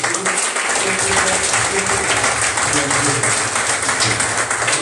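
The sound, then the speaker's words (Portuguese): A church audience applauds Jesus Christ at the close of a service, a dense, loud wash of many hands clapping that fills the space throughout, with a faint murmur of voices underneath. “Irmãos, aplauda Jesus Cristo em nome de Jesus.”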